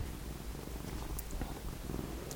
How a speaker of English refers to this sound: Noah's just joined us, so any purring that you can hear is him.